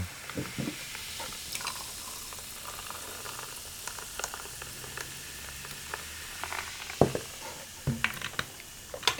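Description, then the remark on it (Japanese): After stirring, carbonated water is poured into a highball glass of whisky, aimed at the floating liquid rather than the ice, making a steady fizzing, crackling hiss throughout, with a few sharp clinks of ice near the end. No one speaks. “とステアしてもらったら炭酸水を加えていきますでよくあのー、まあ氷に触れないようにとかっていうんですけど、はい僕はこれの場合はちょっと液体今捨て足して液体がちょっと浮いてきてるんで、うん、そこに当てるように注いでもらうと、うん、あの炭酸が当たって香りがどんどん立ってくるんで”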